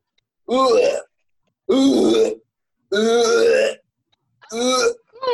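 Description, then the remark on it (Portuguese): A voice imitates cave-like retching heard from a bathroom, making four loud, drawn-out, hollow gagging groans, each about half a second to a second long, separated by short pauses. “Quando abri a porta, ouvi um barulho esquisito. Um treco muito estranho, tipo caverna, que vinha lá do banheiro. Assim, ó.”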